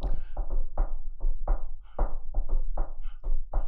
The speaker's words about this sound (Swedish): Att det kommer fram en melodi genom en knackning.